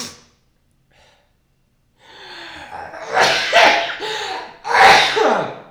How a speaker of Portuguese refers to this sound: Dez espirros.